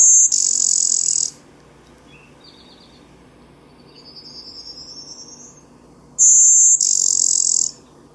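A blue-winged warbler gives its raspy bee-buzz song twice, each a loud, high two-part buzz separated by several seconds, with a fainter rising buzzy bird song in the background between them.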